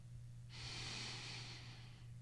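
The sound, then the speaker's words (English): A single slow, deliberate breath, drawn in and let out in one long airy rush lasting over a second, over a faint steady hum, with no talking. “It's like you actually probably breathe a little faster than what you just did.”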